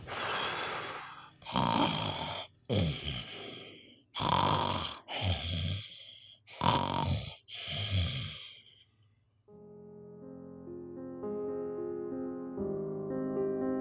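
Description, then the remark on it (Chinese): Loud, rasping snores of two drunk men, a circus owner and a hunter, about seven in a row at a steady rhythm, each a rough noisy burst, followed by a gentle tinkling melody that plays alone at the end. “那天晚上呢，马戏团的老板和这个猎人呢一起大吃大喝，结果呢两个人都喝很多，喝醉了， 呼呼大睡，睡觉了。”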